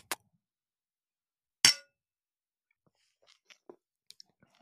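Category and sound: household object, glasses clinking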